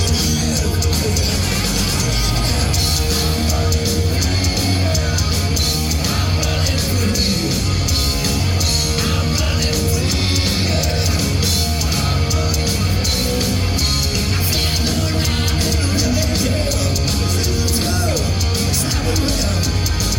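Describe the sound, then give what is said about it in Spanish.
Loud, distorted live rock concert captured on a mobile phone, with a man in a wheelchair in front of the stage singing, buried in a dense wall of band noise, heavy bass and crowd shouts running continuously throughout. “tengan en cuenta que la calidad de audio de un teléfono, teléfono celular, ¿no?”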